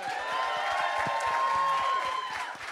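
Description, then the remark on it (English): A crowd applauds steadily, with dense overlapping claps and a few cheers mixed in, holding a fairly even, fairly loud level for a few seconds. “Ladies and gentlemen, give a round of applause.”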